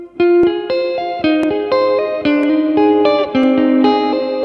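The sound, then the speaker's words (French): Electric guitar picks out a flowing, descending arpeggio built on an A-flat major triad, each note ringing into the next through chorus and reverb effects, played fairly loud with no talking. “Les ARPEGES de Debussy GuitarVlog #16”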